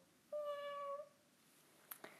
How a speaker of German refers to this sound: Ähm, das sind die Katzen. Ich weiß nicht. Einfach die Katzen da.